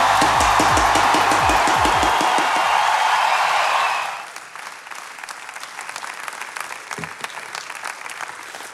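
Loud, sustained applause from a large standing church crowd at ICF Zürich, dense rapid clapping with some cheering, which thins after a few seconds into scattered, lighter claps that carry on to the end.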